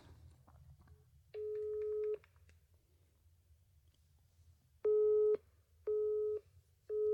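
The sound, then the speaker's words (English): A phone's busy tone signals a declined call: one long steady beep, then a pause, then a run of short evenly spaced beeps, clear and loud over a faint low background hum. “he he just ignored my call. Did you hear that?”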